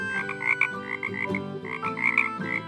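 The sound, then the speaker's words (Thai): Frogs croak in a steady stream of overlapping, raspy calls, loud, with several pulsing bursts repeating across the whole stretch and no voices. “มีกบอยู่สองตัว มองหาที่อยู่ใหม่ เพราะน้ำในสระหนอง คลอง และลำธารบริเวณที่พวกมันเคยอาศัยอยู่นั้น เริ่มแห้งขอด”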